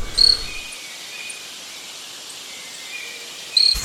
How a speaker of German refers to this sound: Unser Vogel der Woche, der Stummelschwanz-Zwergtyrann, kleinster Sperlingsvogel der Welt.